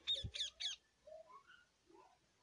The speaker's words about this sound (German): Ein Papagei